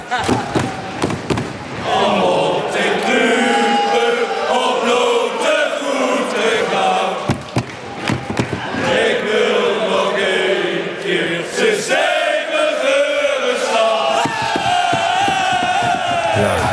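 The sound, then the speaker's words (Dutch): A large football stadium crowd at a sunny Sunday afternoon match roars and chants in unison, a dense, sustained wall of voices with rhythmic surges, briefly dipping around the middle before swelling again. “Ik bedoel, uh, je bij je favoriete club met je vrienden.”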